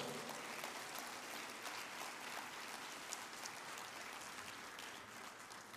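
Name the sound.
audience clapping loudly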